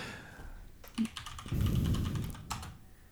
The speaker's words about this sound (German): Ich gebe mal erstmal nur Creatures ein.